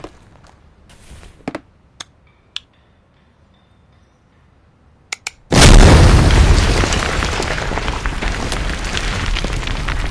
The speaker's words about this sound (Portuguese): Vai ficar empoeirado aqui, só isso. A maior parte da explosão será direcionada para baixo.